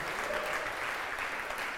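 audience clapping

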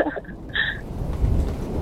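rain and thunder

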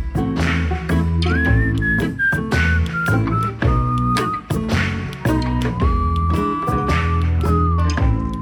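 person whistling

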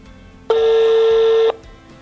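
telephone dialing a call

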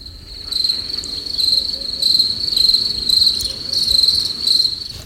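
cricket chirping sound effect

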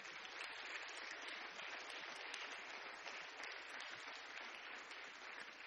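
audience clapping hands

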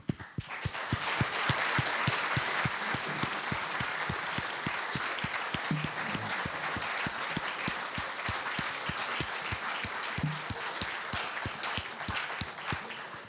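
audience applause

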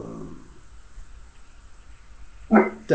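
dog barking

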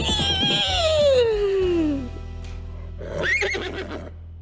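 horse neighing

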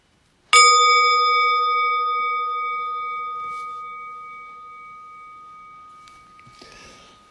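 meditation bell ringing

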